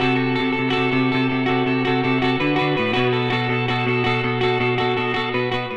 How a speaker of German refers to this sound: Und ich glaube, man hört auch voll, dass es so, ich glaube, es waren Fender-Gitarren und Fender Twin Reverbs, glaube ich, Amps, die wir benutzt haben. Und es klingt halt so sehr pokey und hallig.